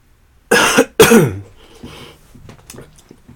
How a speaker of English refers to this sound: I'm not going to edit them. So if I cough, I'm going to cough.